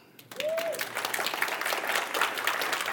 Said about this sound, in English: We're blessed to have a police chief that knows Jesus, a mayor who knows Jesus. Y'all should clap for that.